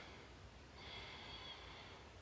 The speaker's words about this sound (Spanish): Vamos a tomar una última respiración profunda.